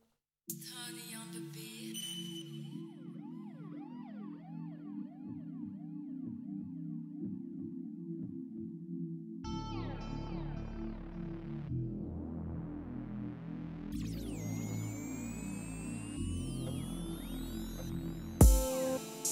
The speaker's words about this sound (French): On fait une petite pause musicale.